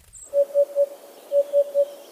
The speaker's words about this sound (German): Fünf gefiederte KollegInnen treten nämlich in diesem Herbst zur Wahl des Vogels des Jahres an. Also, da wären der Wiedehopf,